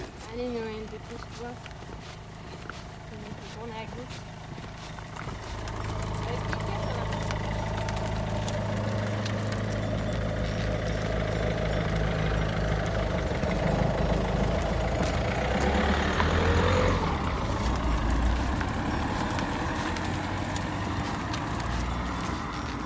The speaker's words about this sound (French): et ah, une voiture qui arrive derrière.